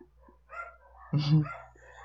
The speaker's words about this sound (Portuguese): Nossa, tem muito cachorro latindo aqui, tá... cara.